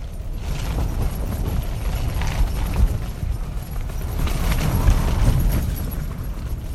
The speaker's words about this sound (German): was man da hört, ist das flatternde Zelt und auch hört man vielleicht so ein bisschen, wie sich diese Zellstangen so, so biegen